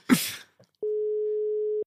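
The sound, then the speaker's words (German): A brief noisy rustle, then a single steady ringing tone of an outgoing phone call, a clean continuous hum lasting about a second before it cuts off as the call is rejected. “der … drückt uns gleich weg”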